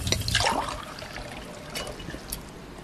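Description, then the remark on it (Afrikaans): Water pours quickly into a glass with a brief gushing splash at the start, then settles into a softer, steady trickle, with no voices. “hier, jou water.”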